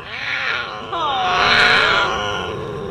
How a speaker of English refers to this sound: Ooh, listen to that cougar.